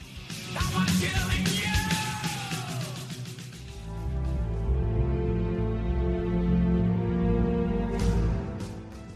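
A loud, dense heavy metal passage with pounding rhythmic drum hits and shouted vocals, shifting into sustained, droning distorted guitar chords that fill the whole stretch without pause.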